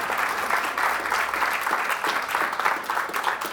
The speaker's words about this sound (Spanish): Y si no le das un aplauso a Pablo, ese sí que era un predicador. Eso sí es una buena prédica.